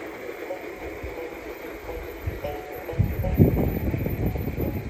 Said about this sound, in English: It's a long log train double headed by two shays, taken on the San Benito Southern during the National Garden Railway Convention open house